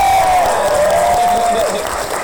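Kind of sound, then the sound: crowd, audience cheering and applause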